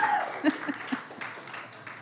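A standing crowd applauds a man, many hands clapping in a dense, continuous patter, with a brief voice or cheer near the start.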